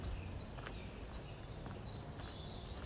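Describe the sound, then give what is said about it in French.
Birds sing, with short, high chirps repeating every half second or so over a steady outdoor hiss and low rumble. No one speaks. “Tu vas pouvoir dès à présent entendre ce qu'il se passe autour entendre le bruit des oiseaux, le chant des oiseaux.”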